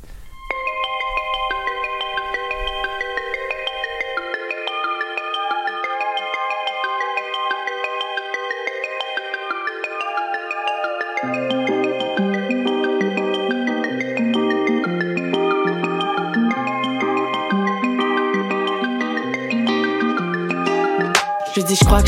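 A song's instrumental intro plays alone, a bright, chiming synth melody with steady, even loudness, joined about halfway through by a pulsing bass line; no voices are heard.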